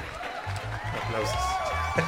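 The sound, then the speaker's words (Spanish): Steady applause from a crowd welcoming a guest onto a show, mixed with cheering, whoops and overlapping voices, forming a dense, continuous wash of sound for about two seconds. “Aplausos. Aplausos.”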